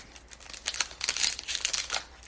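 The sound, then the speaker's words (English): Foil Pokemon card booster packs, all Toxtricity packs from Rebel Clash, crinkle and rustle as they are shuffled together, a steady run of crisp crackling bursts for a couple of seconds with no one talking. “I'm just going to shuffle. They're all Toxtricity um, packs from Rebel Clash.”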